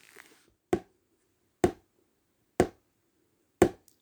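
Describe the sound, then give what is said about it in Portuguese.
A spoon taps a plastic pot with a lid four times, slowly and evenly, about once a second, imitating light rain. Each tap is crisp and fairly loud, with near silence between them. “Você vai bater a colher bem devagar.”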